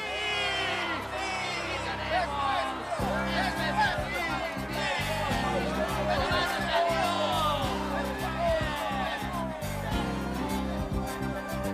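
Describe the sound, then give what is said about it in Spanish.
A large crowd cheers and shouts together, a dense, steady roar of many overlapping voices with scattered whoops rising out of it, sustained and loud throughout. “¡Griten para que los cielos puedan escucharlos! ¡Griten con júbilo porque Dios nos ha dado el gol!”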